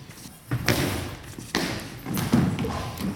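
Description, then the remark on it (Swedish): A heavy goalball, shot hard with spin in a Sweden versus Germany match, slams against the wooden court floor and bounces several more times over the outstretched German defenders, each impact a loud, sharp thud ringing through a large hall over steady background noise. “väldigt snyggt skott av Anna Kristensen. Studsande, hårt skruvat, som studsar över de utsträckta tyska försvarsspelarna”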